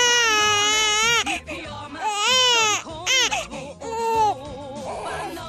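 A baby cries loudly in a string of rising and falling wails, broken by short catches of breath, with no other voices around it.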